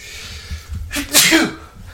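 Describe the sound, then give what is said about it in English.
A single loud sneeze bursts out with a sharp, breathy hiss after a brief inhale, then fades quickly into quiet. “I'm gonna sneeze.”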